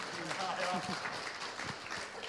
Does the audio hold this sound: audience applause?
yes